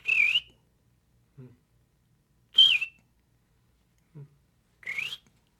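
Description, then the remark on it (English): A person whistles three short, slurred bird-like phrases imitating a Cassin's vireo song, spaced about two seconds apart, with faint low murmurs in the gaps between them. “there's a Cassin's vireo that starts later in the day and is more in the in the spruce fir forests.”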